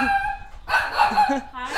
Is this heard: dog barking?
yes